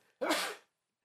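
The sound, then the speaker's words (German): One sharp, loud sneeze bursts out, a sudden explosive blast that fades over about half a second, followed by quiet and the start of another sound. “Gesundheit.”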